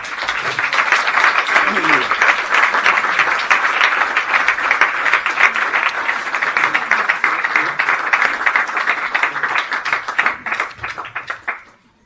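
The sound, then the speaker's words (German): Sustained applause from a crowd, a dense steady clatter of many hands clapping for about eleven seconds before stopping abruptly, with a bit of laughter and voices mixed in. “So, das reicht einfach mal. Applaus”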